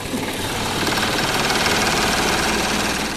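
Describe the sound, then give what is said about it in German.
A truck-mounted machine runs with a steady, loud engine drone and a fine rhythmic rattle as it empties a large bucket of wet leaves lifted out of a street drain gully in Fulda. The noise is continuous, with no voices. “Den hebt er jetzt raus und der wird jetzt von der Maschine am Auto ausgeleert.”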